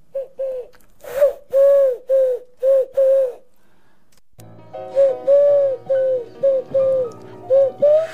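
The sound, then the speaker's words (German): A person in a radio studio imitates a pigeon's cooing with a run of about six rounded, throaty coos, then a short pause and another series of coos over a low background hum. The coos are fairly loud. “Äh, ist hier eine Taube im Studio?”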